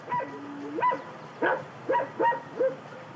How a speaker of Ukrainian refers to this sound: На вулиці середина жовтня, у дворі гавкає пес, а в садку у відрах стоять достиглі осінні яблука.